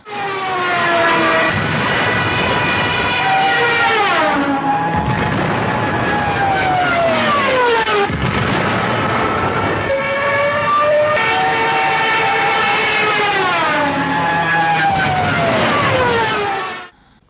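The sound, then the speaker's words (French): A Stuka dive bomber's siren wails loudly and continuously, its pitch repeatedly sliding down and climbing back up in swells every few seconds over a roaring engine, then cutting off abruptly. “que vous venez d'entendre est donc la tristement célèbre sirène de piquet des Stuka qui précédait donc de peu généralement les déflagrations mortelles produites par le largage de ces bombes.”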